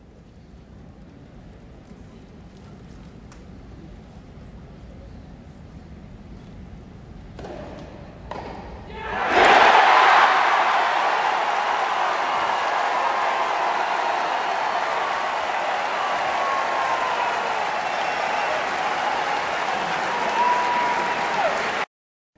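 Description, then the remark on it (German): At Wimbledon, as Murray serves for the set at 6–2 in the second-set tiebreak, the hushed crowd murmurs, a few soft thuds sound, then the spectators erupt into loud cheering and sustained, dense applause that carries steadily for over ten seconds. “Aber apropos Stimmung, ich habe mir gedacht, jetzt schlägt Murray bei 6 zu 2 im zweiten Satz, äh, im Tiebreak, zum Satz auf. Jetzt hören wir mal, wie sich das anhört.”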